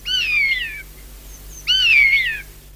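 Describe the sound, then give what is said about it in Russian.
Two drawn-out, downward-sliding mewing cries, a starling mimicking a buzzard's call, each lasting under a second with a short pause between, clear over a quiet low hum. “И сойка, и скворец, и на самом деле некоторые другие птицы подражают конюку.”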